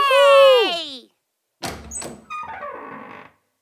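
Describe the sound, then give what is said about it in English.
A door creaks open with a drawn-out, wavering squeak of the hinge as people step outside into the garden, then after a short pause comes a sharp knock, clattering and a rattling scrape, all fairly loud. “That was the door opening.”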